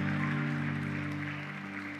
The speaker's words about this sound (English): Uh, could you clap your hands to Jesus? Thank you.